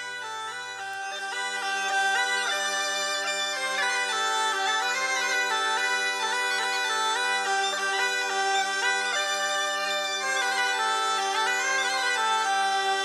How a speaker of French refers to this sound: le morceau s'appelle Le Forban et ouais, c'est un chant de marin